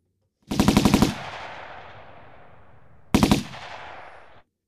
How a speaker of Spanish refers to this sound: Y pegar tiros